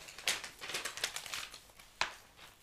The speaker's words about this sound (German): Okay, danach muss ich nämlich einmal kurz blättern.